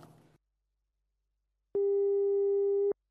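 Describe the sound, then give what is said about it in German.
A telephone rings with one steady, loud electronic tone lasting about a second, signalling the first caller coming in, following a brief snippet of voice and a short silence. “Oh, da kommt ja schon der erste Anrufer.”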